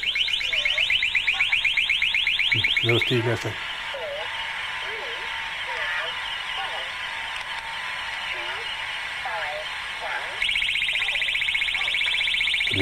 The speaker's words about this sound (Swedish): Då kommer det låta så här. Då kommer du alltså höra en störning och samtidigt hör man bakgrunden CIAs agentsändning.